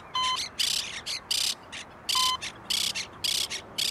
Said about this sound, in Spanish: En un momento vino una cotorra que se paró en un cable de internet afuera y empezó a cantar.